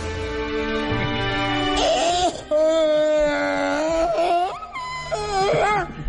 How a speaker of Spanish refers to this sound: Entonces ya lo que sigue con esta canción es el paciente llorando.